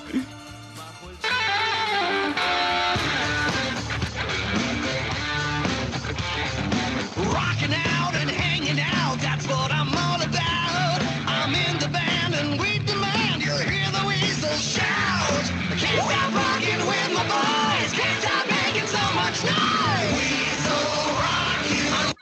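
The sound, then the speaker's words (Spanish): A loud, energetic TV series theme song plays for about twenty seconds, a full band with driving drums and enthusiastic, shouted-sounding vocals, steady and dense from start to finish. “esta canción fue de la serie Estoy en la banda”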